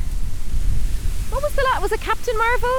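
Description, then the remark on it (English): Loud, gusty wind buffets the microphone outdoors on a very windy day, a constant low rumble running through the whole clip, with a person talking over it partway through. “apologies for the wind, it's very windy here today.”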